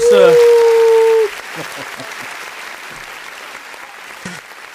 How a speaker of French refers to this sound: C'est les applaudissements qui n'en terminent pas.